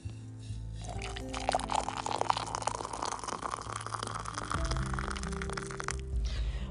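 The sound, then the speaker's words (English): Hot water pours steadily from a kettle with a broken whistle into a cup, a continuous splashing trickle with a rising tone as the vessel fills, no voices present. “Thank you, Savannah, for the nice hot warm water.”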